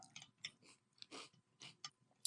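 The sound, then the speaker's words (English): Wet crunching of cereal being chewed, a steady run of irregular crisp bites and munches, each a short bright burst. Nothing else is heard. “You hear that crunch?”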